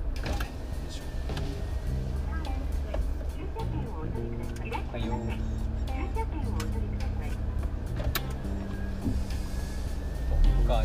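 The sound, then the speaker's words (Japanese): A parking ticket machine whirs and clicks as it dispenses a parking ticket, over a steady car engine hum with tonal chimes and a voice talking. “駐車券を取らなきゃいけない”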